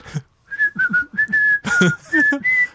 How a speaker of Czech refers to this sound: To je, já jsem se na to nedávno zapomněl a on si furt pískal. Zapískej nám